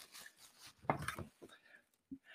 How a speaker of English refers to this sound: For anyone listening, this is the tissue paper that I'm taking out of the, the box.